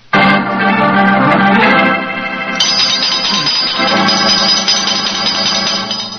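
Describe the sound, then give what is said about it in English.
A doorbell rings loudly and insistently, a sustained jangling ring that carries on for several seconds, briefly shifting in tone partway through, with no voices over it. “And if any more clients come wrenching at my doorbell, I shall ignore them.”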